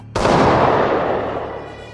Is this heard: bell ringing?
no